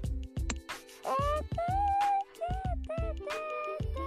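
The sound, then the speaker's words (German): A cat named Schnee meows repeatedly in drawn-out, rising and falling wails that sound much like a crying baby, loud, with a few short gaps between cries. “Das Schnee hört sich an wie ein Baby.”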